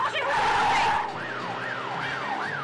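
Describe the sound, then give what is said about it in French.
In a driving video game, a police siren wails in steady rising-and-falling sweeps, about three cycles, following a brief loud burst of engine and tyre noise at the start. No one speaks. “Surtout en fait, ce qui est, ce qui est problématique, c'est les keufs et les véhicules, le trafic.”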